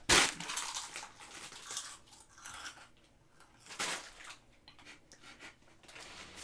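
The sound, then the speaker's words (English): Slow crunching on potato chips: a loud crackling crunch at the start, then a series of slower, irregular crisp crunches and rustles, with no talking. “no, you can't slow crunch on the chips.”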